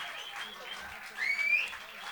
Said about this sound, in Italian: noi adesso facciamo un breve giustamente ancora una applauso meritatissimo